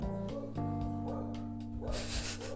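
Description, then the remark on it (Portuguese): A dog barks frantically outside in rapid, repeated bursts, sounding somewhat muffled, with a steady tonal hum running underneath. “E Deus foi quem o criou e o cachorro frenético aqui fora, né, gente?”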